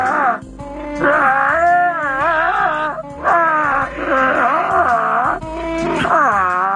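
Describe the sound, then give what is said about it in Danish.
A voice imitates Chewbacca's Wookiee growls, moaning the Christmas carol Silent Night in loud, wavering, throaty howls, with phrases separated by short breaths. “Det er Chewbacca, der synger Glade Jul, eller ja.”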